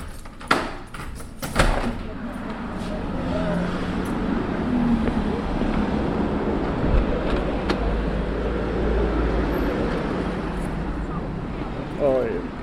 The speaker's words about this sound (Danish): Jeg leder vejen, og vi ja. går lige ud på jagtvej, så folk vil kunne høre lidt biltrafik.